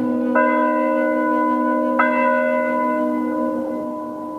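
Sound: church bell tolling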